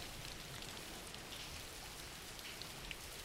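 Steady rain falls continuously, a dense, even hiss of drops spattering on a surface with occasional brighter taps, holding a constant level throughout with no voices.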